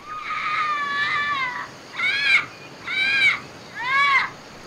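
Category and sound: bird, parrot squawking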